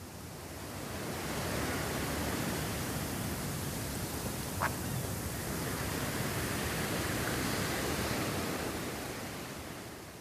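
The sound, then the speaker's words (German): Steady ocean surf washes over a beach in a continuous, rushing hiss that fades in and out gently, with no voices, just the broad roar of waves. “wie der Ozean, der ständig in Bewegung ist, der durch die Gezeiten mit hohem Wasser oder niedrigem Wasser an unserem Strand ankommt.”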